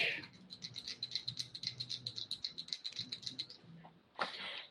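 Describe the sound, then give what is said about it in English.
Dice rolled for an attack, including a bonus die, rattle and clatter in a quick, steady stream of small clicks for several seconds, moderately quiet, ending with a short scraping burst as they settle. “so you get a, a, a, a bonus die. Which I rolled the exact same thing on both.”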